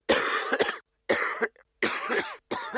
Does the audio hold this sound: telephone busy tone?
no